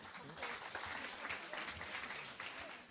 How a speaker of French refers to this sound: Allez, on peut, on peut les applaudir un tout petit peu plus fort. Franchement, 4 ans. 4 ans quand même.